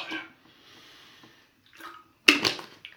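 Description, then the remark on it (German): Someone takes a sip of water, with soft wet slurping and swallowing, followed by a louder sharp breath or gasp near the end. “mal, mal einen Schluck Wasser nehmen.”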